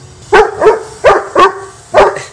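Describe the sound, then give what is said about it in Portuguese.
A dog beside a swimming pool barks five times in quick, uneven pairs, wanting a ball that is in the water, each bark sharp and loud, with no voices alongside. “Ele estava deitadinho na espreguiçadeira, mas o cão não parava de ladrar porque queria uma bola que estava dentro de água.”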